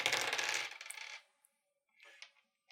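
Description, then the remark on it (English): A loud rattling clatter of four dice tumbling across a table for about a second, followed by a brief pause and a few softer clicks as they settle. “which is four dice.”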